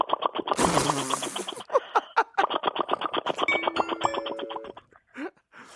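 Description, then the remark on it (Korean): A voice imitates a scooter engine idling: a breathy sputter at the start, then a fast, steady train of putt-putt pulses for several seconds, fairly loud, trailing off at the end. “자, 스쿠터 대기하는 소리 들어보겠습니다.”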